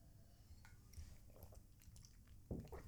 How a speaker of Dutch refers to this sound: En nog even een slokje water tussendoor.